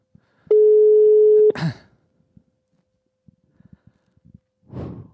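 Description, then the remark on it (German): A single loud, steady telephone ringing tone of a dialled call sounds for about a second, then cuts off into a sharp breathy snort, followed by faint clicks and a soft exhale. “Es müsste klingeln.”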